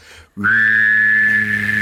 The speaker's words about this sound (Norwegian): Jeg klarer til og med det her. Bassplystring. Hør, hør på det her nå.